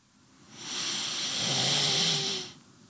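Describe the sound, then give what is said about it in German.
One long, heavy breath of about two seconds, loud and airy with a low, raspy throat rumble underneath, swelling up and fading away with no talking. “Man hört mich schwer einatmen und schwer ausatmen, hm.”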